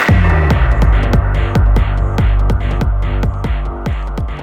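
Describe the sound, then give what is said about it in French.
A music track, the third on an EP, driven by a heavy, thumping bass beat that pulses steadily about twice a second, with sharp percussive hits on top and dense synth layers, loud. “c'est la troisième musique de l'EP …. que ce morceau est un peu plus boum-boum”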